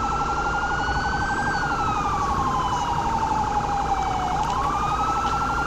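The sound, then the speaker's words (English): A loud police siren wails steadily, its pitch sliding slowly up and down over a constant background rumble, with no talking. “I forgot the sirens and lights.”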